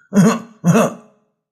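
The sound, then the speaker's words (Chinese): Two loud, deliberate throat-clearing coughs in quick succession, voiced for the historical figure Huo Guang in a told story, each a gruff, voiced burst about half a second long, followed by silence with no talking. “霍光发现远处已经露出了霍子侯的影子，便大声咳嗽了几声。”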